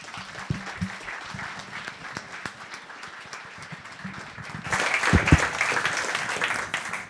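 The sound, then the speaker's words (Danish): An audience applauds steadily at the start of a talk about the book Glansbillede, a dense patter of many hands clapping that swells louder and fuller about two-thirds of the way through, with no one speaking over it. “Så jeg synes, vi alle sammen skulle starte med at give en rigtig stor hånd”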